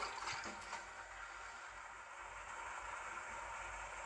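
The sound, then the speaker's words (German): In a video game, steady sloshing and churning of water as a character wades through it, continuing at an even, moderate level for several seconds with no voices. “Wir warten durch Wasser.”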